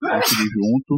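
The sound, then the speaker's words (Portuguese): A single sharp sneeze bursts out, followed right away by a man's voice speaking briefly over and after it. “Saúde. Saúde. Saúde.”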